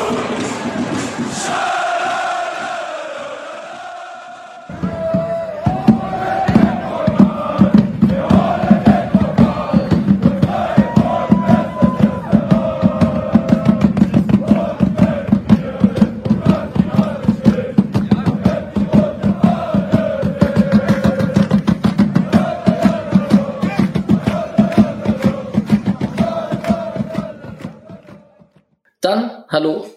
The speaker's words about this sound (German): Und wer sich gerade gewundert hat, so positive Sprechchöre gehört zu haben